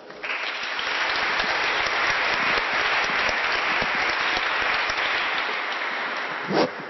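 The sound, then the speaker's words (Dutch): Sustained audience applause welcoming a guest, a millennial coach, a dense steady wash of many hands clapping at a fairly loud, even level for several seconds, with no voices heard over it. “Dus graag een warm applaus voor Jasper Scholten.”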